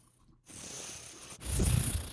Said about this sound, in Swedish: hon började alltså, sniffa på micken